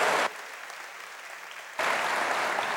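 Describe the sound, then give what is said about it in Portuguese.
An audience with raised hands bursts into loud, dense applause to the Lord, which dips briefly to a softer patter of clapping before surging back to full strength. No one speaks over it. “Só os vitoriosos levantem as mãos e aplaudam ao Senhor.”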